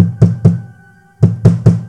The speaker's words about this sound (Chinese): 琪琪敲了敲门